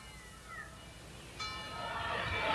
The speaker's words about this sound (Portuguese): Séculos mais tarde, Pagani, dia 1 de agosto, ao meio-dia, ressoam as badaladas do Ângelus.